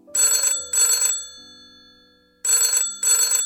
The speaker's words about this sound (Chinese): 被一阵急促的报警电话把他从梦中给拽醒了。华 Sir 揉揉脸，清醒一下，刚接起这个报警热线。